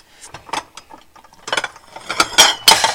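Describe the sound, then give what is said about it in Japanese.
Hard polypropylene plastic plates, microwave- and dishwasher-safe, clatter and knock together in a quick, irregular series of sharp clicks as one is picked out, growing louder and busier toward the end, with no one speaking. “ちょっとごめんね今うるさかったねこのこの皿で食べようこれはねポリプロピレンの、えー、これなかなか優れもので電子レンジにも使える食洗機にも使えるプラプラスチックの皿です”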